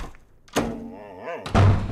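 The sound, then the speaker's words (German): A door off an office hallway is yanked open with a sharp thunk, its hinge briefly groaning, then slammed shut with a heavy thud about a second later. “Warum laufen sie hier durch den Flur, reißen jede Tür auf, schauen kurz rein und trotten dann wieder weiter?”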